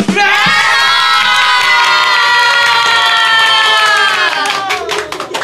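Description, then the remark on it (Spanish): A crowd of children from the Angelitos Misioneros program cheers loudly with high-pitched, sustained shouts as they receive applause for their year of service, while scattered clapping grows more distinct toward the end as the voices fade. “Y yo quiero regalarles un fuertísimo aplauso a ustedes.”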